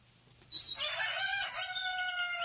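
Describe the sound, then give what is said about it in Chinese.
A free-range Jiuyuan black chicken rooster at the Wanyuan Hengkang ecological farm in Dazhou, Sichuan, China, crows once at daybreak among green hills, a loud, harsh rising call that holds a strained, wavering tone for about two seconds over a low, steady background hum. “在绿色的丛山中，达州市万源恒康生态养殖基地放养的旧院黑鸡正高傲地鸣叫着。”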